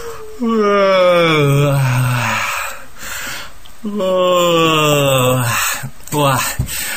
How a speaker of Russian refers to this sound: Давайте, кстати, сейчас, может быть, попробуем все вместе Ой, зевнуть. Я вот сейчас тут зевну у себя.